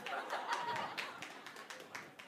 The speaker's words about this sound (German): Ja, da klatschen Kenner.